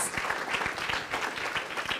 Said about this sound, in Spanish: Dele ese fuerte aplauso al Rey de Reyes.